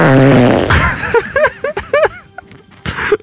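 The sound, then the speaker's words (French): Bubbling heard above defective gas pipelines: a loud flatulent blast opens, then breaks into a series of short, wet bubbling pops that sputter irregularly and fade, with one last burst at the end. “Ça bouillonne. J'entends ça, oui.”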